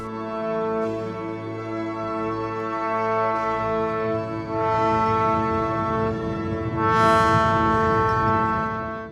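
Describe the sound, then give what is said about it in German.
A full orchestra sustains rich, loud chords in a plain cadence of C major, A major, D minor, G major and back to C major, shifting every couple of seconds, as a dense low rumble from some 50 pianos, tuned a hundredth of a tone apart and playing low, thickens beneath. “dann fängt das Orchester an, man hört einen C-Dur-Dreigel. Dann A-Dur, dann D-Moll, dann G-Dur und wieder C-Dur.”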